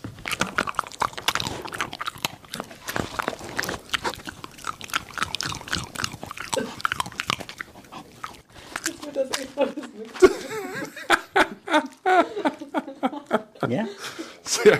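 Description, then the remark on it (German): A dog chews and smacks its lips in a series of wet, irregular clicks and crunches, with people talking and chuckling over it for much of the time. “Und das wäre auch eine schöne Aufnahme, dass wieder Hund schmatzt.”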